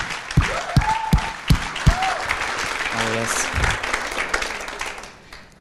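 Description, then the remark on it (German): A church audience at the Connect-Kirche breaks into sustained applause for people attending for the first, second or third time, dense clapping with a few cheers and a voice calling out over it, fading slightly toward the end. “Und deswegen, lass uns mal den Leuten, die das erste, zweite oder dritte Mal da sind, einen fetten Applaus geben, weil ihr seid der absolute Hammer, hey.”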